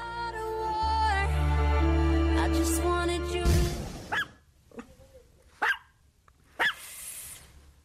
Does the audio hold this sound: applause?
no